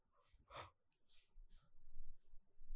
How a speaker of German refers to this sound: ich habe wieder gegähnt.